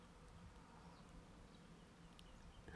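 A faint, steady drone of a distant airplane hums continuously throughout, low and even, with a short louder rustle right at the end, heard while walking past a reed bed.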